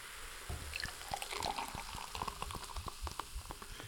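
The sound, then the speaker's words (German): Fizzing and crackling of Almdudler herbal soda foaming up as it is poured, dense tiny pops and bubbly hiss over a liquid pour, steady for several seconds with no talking. “Oder ja, Schaum schäumt natürlich gut hoch.”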